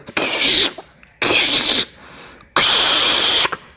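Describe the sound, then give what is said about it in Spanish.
A voice imitates the sound a car makes when it is switched off, three harsh, hissy bursts, loud, separated by brief pauses, the final burst held longest. “Y después cuando lo voy a apagar hace...”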